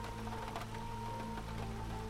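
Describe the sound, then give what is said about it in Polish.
Steady rain falls outdoors with a dense, even hiss, and strong wind makes a low constant rumble underneath, continuous throughout, with no voices. “Na dworze padał deszcz i wiał silny wiatr.”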